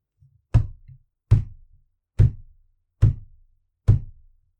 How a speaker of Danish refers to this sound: Men på et tidspunkt, efter 20 uger, der bankede det på porten udenfor.